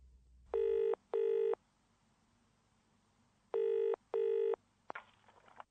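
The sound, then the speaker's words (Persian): A telephone ringing tone sounds on the line as a bank's number, English Express Banking, is called, in two double-ring bursts separated by a pause, clear and steady, followed by a click as the call connects to a recorded message. No one speaks. “شماره تلفن این بانک رو میگیرین و پیام ضبط شده میشنوین که به شما چند تا انتخاب ارائه میده”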